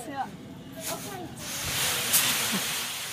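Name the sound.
fire extinguisher spraying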